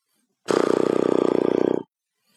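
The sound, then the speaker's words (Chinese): A voice imitates a motorcycle engine with a lip trill, made by relaxing both lips and blowing air out slowly: one steady, loud, low buzzing flutter lasting over a second, with rapid even pulses, then it stops abruptly. “哎呀，有点不行，就是放松两个嘴唇，然后吹气，缓慢的吹气。”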